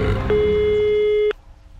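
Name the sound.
telephone call tone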